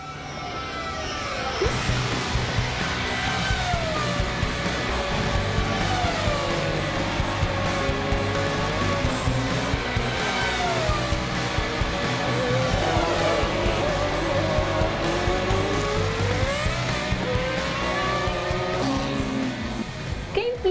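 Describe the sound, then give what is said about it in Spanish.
Race car engines roar continuously around the Autódromo Hermanos Rodríguez track in Mexico City during a speed festival with several motorsport categories, their loud, high-revving pitch rising and falling as several cars accelerate, shift gears and sweep past. “Impresionante festival de velocidad se lleva a cabo aquí en el Autódromo Hermanos Rodríguez en la Ciudad de México, con diferentes categorías de automovilismo deportivo”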